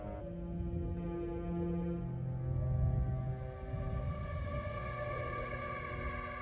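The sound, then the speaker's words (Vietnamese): An eerie, hollow moaning drone of wind blowing across the mouth of a well at night, steady and fairly loud, with low sustained tones that slowly shift pitch for several seconds and no voices. “Gió từ đâu thổi về khiến cho những tán lá của cây lộc vừng khẽ rung chuyển Gió thổi qua miệng giếng tạo thành những âm thanh đầy gai người”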